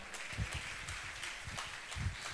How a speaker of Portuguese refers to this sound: sou pastor da igreja de vocês, lá em Caruaru, a melhor cidade do agreste pernambucano. Amém? Pode aplaudir, irmãos, porque é mesmo.